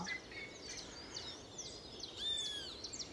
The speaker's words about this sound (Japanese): 今ね朝の、ちょうど5時私ね3時半頃から起き出して実はビデオを録画真っ暗な中で鳥たちの声を入れてたんですけれどなんとなんとここでねここね録音できたんですよすっごく嬉しい